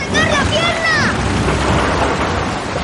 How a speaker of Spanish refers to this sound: El coche se hunde en el agua.